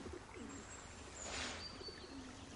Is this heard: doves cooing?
yes